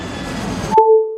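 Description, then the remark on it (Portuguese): A steady airplane engine roar fills the first part, then cuts off abruptly into a clear, sustained cabin chime tone ringing on its own. “A cada 15 dias, o Em Quarentena pega um avião virtual e desembarca em outras periferias do Brasil para entender como estão os moradores dessas cidades e os impactos da Covid-19 por lá.”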